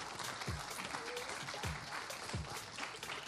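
Sustained audience applause at a live radio concert in the Sala Julián Carrillo as a performer leaves the stage, a dense wash of many hands clapping at steady loudness, with a few deep low thumps recurring about once a second beneath the crowd noise.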